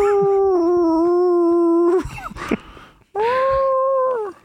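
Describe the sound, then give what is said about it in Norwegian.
A person imitates a wolf howl with two loud, sustained howls: the first steady for about two seconds, then a short noisy gap, then a second, shorter howl. “Vis ansiktsuttrykket, så skal jeg ule som en ulv, OK?”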